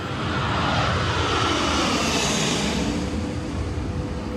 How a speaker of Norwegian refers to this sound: Hvor det da er plass til helikopter inne, så det er et enormt fly, dette er, en sånn C-17.